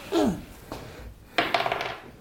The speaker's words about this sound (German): Guck mal, da fällt mir glatt der Würfel runter hier. Jetzt mal gucken.